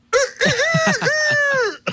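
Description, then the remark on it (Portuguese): A person's voice mimics a rooster's crow: a few choppy, strained syllables lead into a long, loud, wavering high note that bends upward and then falls away. “e teve também o galo.”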